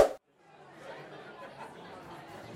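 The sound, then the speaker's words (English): A busy pub full of overlapping voices before a pub quiz, a steady murmur of crowd chatter holding at a moderate level after a brief pause at the start. “So listen carefully as we head to a pub quiz.”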